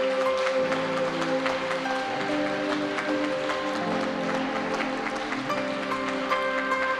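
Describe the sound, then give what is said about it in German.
A church audience applauds members of the Elia-Kreis group steadily, a dense wash of overlapping claps holding at an even loudness throughout, with sustained tones humming beneath it. “Vielleicht könnt ihr ihnen mal einen liebevollen Applaus geben.”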